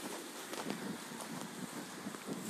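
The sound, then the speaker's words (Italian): Steady, blustery wind roars across open countryside at a temple vegetable garden under a murky sky, a dense continuous rush with gusty buffeting against the microphone and a few faint crunching steps beneath it. “C'è un sacco di vento, il cielo come vedete è bello torbido questo è l'orto del Tempio e quindi mi trovo qua.”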